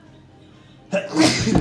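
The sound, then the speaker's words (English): A single sharp sneeze bursts out after a moment of near silence, loud and breathy with a brief trailing exhale. “Bless you.”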